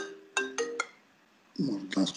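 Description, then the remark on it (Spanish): A telephone rings in a short burst of three quick, bright electronic tones, clear, followed by a person starting to speak as the ringing stops. “Este, hay que cortar el teléfono más.”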